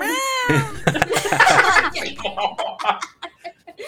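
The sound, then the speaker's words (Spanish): A person imitates a cat with a short, drawn-out meow, then bursts into laughter, with several voices chuckling and talking over each other afterward. “Ahora ponte a maullar.”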